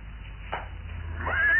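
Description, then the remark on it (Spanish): A horse gives a short, shrill whinny that rises and grows louder toward the end, over a steady low rumble, with no voices. “Ah, ahora guarda los caballos y déjame tranquilo.”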